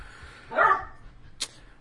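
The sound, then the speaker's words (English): A new puppy lets out one fairly loud bark, followed a moment later by a short, sharp yip, with no voices around it. “Looks like Big Sister's been teaching the new puppy some bad manners.”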